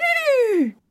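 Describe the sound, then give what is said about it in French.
A person's voice imitates a horse neighing: one loud cry that slides smoothly from high to low pitch over most of a second, then stops abruptly into silence. “C'est un cheval, il fait”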